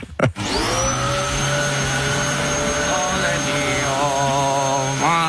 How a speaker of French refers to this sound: Et maintenant, je, passe l'aspirateur dans le studio.